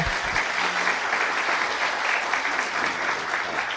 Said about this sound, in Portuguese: Vamos receber o Felipe com um aplauso aqui, querido, nosso irmão.